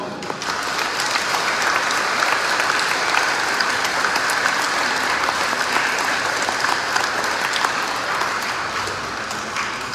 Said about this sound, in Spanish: aplauso.